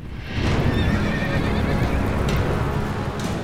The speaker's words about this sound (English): Melinoe and Asclepius looked toward the horizon. A horse drawn chariot was rocketing toward them across the field, silhouetted against the sun.